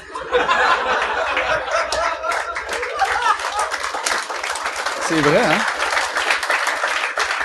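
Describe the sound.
An audience applauds steadily with dense, crackling clapping throughout, mixed with scattered laughter, while a man speaks briefly over the noise near the end.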